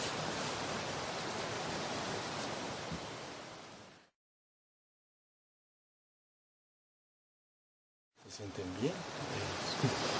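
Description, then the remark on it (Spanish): Steady, hissing rush of a flowing river and a running garden sprinkler, cuts off into silence for several seconds, then returns with faint voices underneath. “Hoy tenemos el río que suena, tenemos el regador mientras suena,”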